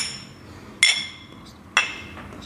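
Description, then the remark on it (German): Glasses clink together in a toast, two bright ringing taps about a second apart, each fading quickly over a low background murmur. “Prost einmal bitte auf Alex.”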